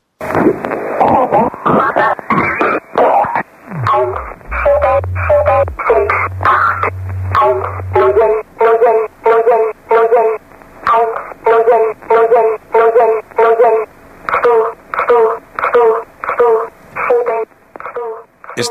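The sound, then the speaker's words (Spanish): A shortwave numbers station broadcast: a thin, band-limited radio voice recites short syllables in a steady, evenly spaced rhythm, with a low droning tone underneath early on and static hiss throughout. “esta es muy conocida, ya no existe, y se denomina G02 o eh, rasodia sueca”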